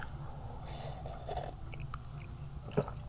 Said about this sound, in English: Hold on, let me take a sip.